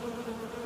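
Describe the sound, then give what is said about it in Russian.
A steady, droning buzz of a swarm of bees, a continuous hum that holds level and fills the short moment with no voices. “Это же рой пчел, а пчелы – это очень трудолюбивые насекомые.”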